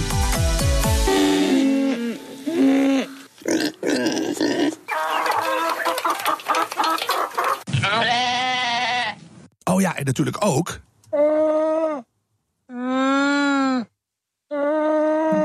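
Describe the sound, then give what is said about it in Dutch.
A medley of livestock noises: a rooster crow and clucking, then a run of loud, wavering sheep or goat bleats at the end, with a few brief spoken words mixed in. “U hoort het al, we gaan het hebben over de veestapel.”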